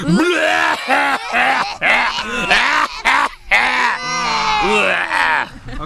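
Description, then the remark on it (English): Several voices loudly imitate a 'death cough', a hacking cough, all simultaneously, producing overlapping strained, groaning rasps that repeat in ragged bursts for several seconds. “Now every, we're about to all do our impersonation of the death cough simultaneously.”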